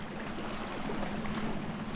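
A small boat comes in from the sea to moor at the wooden stilts of the stilt pier at Carrasqueira, carrying a woman and her husband, its motor humming steadily over a continuous wash of water, with no voices.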